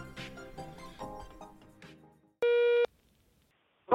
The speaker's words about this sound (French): Laissez-nous un message vocal sur Facebook et nous vous publierons. La parole est à vous après le bip sonore.